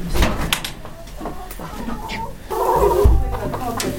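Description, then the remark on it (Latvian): Hens from a farm flock of 70 cluck and murmur in a busy, continuous flurry, with scattered knocks and rustling around them and the clucking growing denser toward the end. “Saimniekiem ir arī 70 vistas, un to skaitu gatavojas palielināt, jo pēc olām ir liels pieprasījums.”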